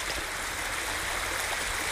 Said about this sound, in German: genauso wie hier dieser kleine Bach, immer wieder ins Fließen kommt